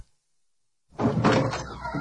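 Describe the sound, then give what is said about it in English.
After a second of silence, a door opens with a sustained, fairly loud creaking and rattling that lasts about a second, heard on its own. “How dare you open doors when doors are made from wood?”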